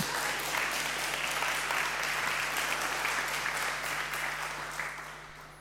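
A crowd applauds steadily, a dense wash of many hands clapping at full strength that holds for several seconds before beginning to thin and fade toward the end.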